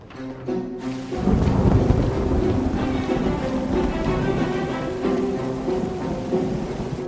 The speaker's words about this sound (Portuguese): Mas está chovendo muito.